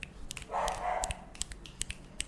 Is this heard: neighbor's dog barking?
yes